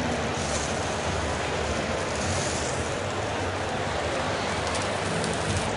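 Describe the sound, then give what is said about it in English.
Smoked scallops sear in a hot pan with a steady sizzle, a dense crackling hiss that holds at an even loudness throughout, with no one speaking. “You should hear a nice little tss.”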